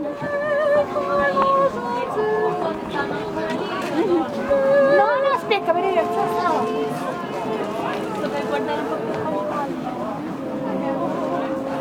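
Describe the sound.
A dense crowd chatters all around at the Baroque Christmas market in Ludwigsburg, many overlapping voices forming a steady murmur with occasional individual voices and clinks.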